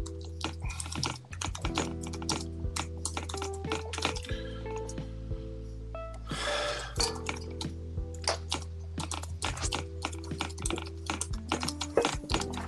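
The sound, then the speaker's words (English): Rapid, forceful typing on a computer keyboard, a dense stream of sharp clacks with a few heavier thumps, fairly loud, with no talking. “The keyboard ain't do that to you.”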